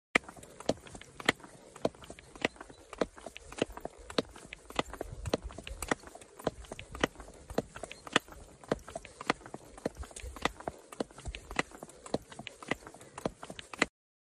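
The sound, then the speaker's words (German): Steady horse hoofbeats clop along in a regular, repeating gait rhythm, crisp, with sharp impacts continuing for the whole stretch and no talking; the horse's gait rhythm at the beginning of a training course. “Hier also der Takt des Pferdes bei Beginn des Kurses.”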